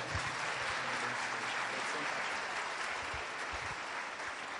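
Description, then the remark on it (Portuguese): Sustained audience applause, a dense, steady wash of many hands clapping at even loudness for several seconds, with no clear pauses or individual claps standing out. “Você pode aplaudir mais uma vez a vida dela?”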